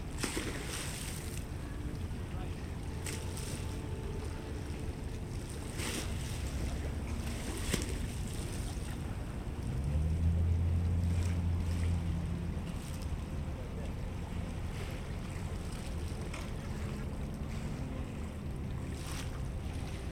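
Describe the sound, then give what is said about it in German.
Sea waves wash and break against rocks at Vancouver in a steady, continuous surge, with sharper splashes now and then and a low motor-like rumble swelling briefly around the middle. “Die Wellen schlagen gegen die Felsen, auf dem sie sitzt, während im Hintergrund die schimmernden Glasfassaden der Stadt auf dem Wasser glänzen.”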